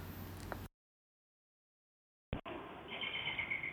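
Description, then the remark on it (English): Birds sing faintly in Epping Forest, with thin repeated chirps over a soft, steady outdoor hiss. A stretch of complete silence comes first, before the ambience returns. “Um, I'm recording it in the forest of Epping. So the birds are singing and it's just full of life everywhere.”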